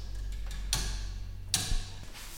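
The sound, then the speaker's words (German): A few sharp clicking ticks at uneven intervals, some close together and others spaced apart, over a low steady hum. No one speaks. “Dass das nicht regelmäßig tickt, das macht nichts, das ist nicht ganz gleichmäßig ist.”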